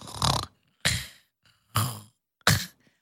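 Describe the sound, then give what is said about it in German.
Recorded snoring from a woman asleep: four loud, raspy, breathy snorts in a steady rhythm, each about half a second long, separated by brief silences, with no talking. “Und das habe ich mal aufgenommen im Schlaf.”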